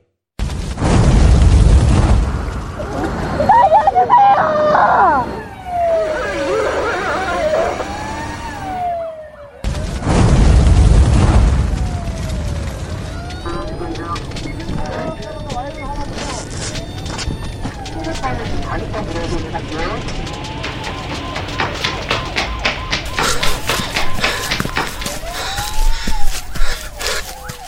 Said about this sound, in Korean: 화재 현장에서 활약하는 우리 소방관의 모습 들려드렸습니다. 생사를 넘나드는 현장을 마무리하고 내쉬는 한숨에서 노고의 깊이가 느껴집니다.